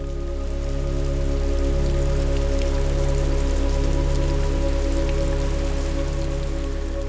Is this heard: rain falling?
yes